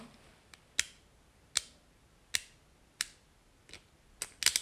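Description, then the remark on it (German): Sharp mechanical clicks from a spinning top's burst mechanism, four crisp evenly spaced snaps, the top bursting at the fourth click, with fainter ticks between and a quick cluster of clicks at the end. No one speaks. “Das waren jetzt vier Klicks. Und beim vierten Klick ist er halt schon geborsten.”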